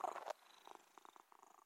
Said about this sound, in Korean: 어느 날 마당으로 찾아온 고양이가 내 무릎으로 폴짝 뛰어오르더니 이내 드릉드릉 코를 골며 낮잠을 잤다. 읽던 책을 조심히 덮고는 가만히 고양이와 숨소리를 맞추었다.